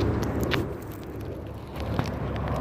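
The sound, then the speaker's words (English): A steady, broad roar of a Southwest Airlines airliner passing overhead over a ski rink near Holt Boulevard, flying east, dominated by low rumble with a hissy upper layer and a couple of brief clicks; no one speaks. “That is the state flying over by plane. Southwest airline hovering over what is a ski rink.”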